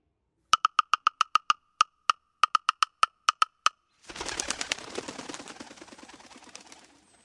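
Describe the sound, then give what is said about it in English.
A woodpecker pecks at wood, about a dozen and a half sharp, ringing taps in uneven bursts, then a dense, rapid flurry of pecking that fades toward the end. No voices. “Woodpecker, that's what you've been working on, isn't it?”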